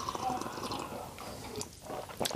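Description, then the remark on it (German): Someone takes a small sip of a drink, soft wet slurping and mouth noises followed by a brief swallow-like click near the end, with no talking. “Gleich nochmal nippen. Gleich nochmal ein Schlückchen.”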